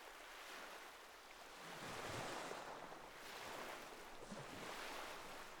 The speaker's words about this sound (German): Die Atmosphäre des verlassenen Schiffes, die Stille des Strandes und das sanfte Rauschen des Meeres wiegen dich in einen friedlichen Zustand der Gelassenheit.